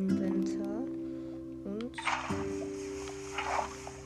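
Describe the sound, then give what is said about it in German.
A video-game water bucket is emptied onto lava, putting out a large part of it, giving a bright splashing hiss that swells midway and lingers in bursts over a steady, droning tonal background. “lösche hier einen Großteil der Lava.”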